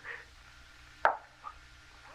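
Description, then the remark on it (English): A single sharp knock on a door cuts through the quiet, followed by a much fainter tap a moment later. No one speaks. “It sounded like someone at the door.”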